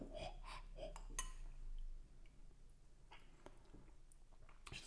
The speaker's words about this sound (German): Du löffelst einen Gin Tonic. Mhm, ich löffel einen Gin Tonic.